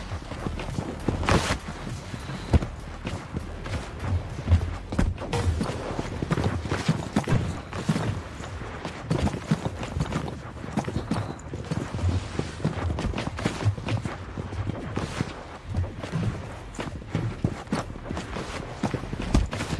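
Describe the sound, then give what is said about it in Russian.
A dense, continuous clatter of many stomping footsteps in a video game lobby where about 100 players stomp on a small area, overlapping into a loud galloping rhythm almost like hooves, steady for the whole stretch with no talking. “Я не знаю, где они такой топот ног придумали.”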